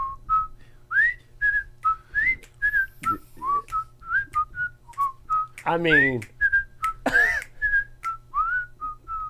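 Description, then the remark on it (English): A person whistles a lively tune, a steady run of bright, sliding notes with quick rhythmic phrasing, briefly interrupted by a short spoken aside partway through. “hey give it up good. for the whistle.”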